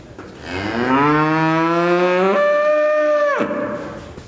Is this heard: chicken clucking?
no